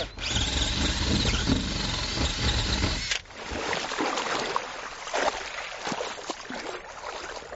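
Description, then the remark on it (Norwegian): Steady rushing water on a farm, loud and continuous, with a heavy low rumble for the first three seconds before it thins into a hissing, gurgling flow. No one speaks. “Dette er altså vann.”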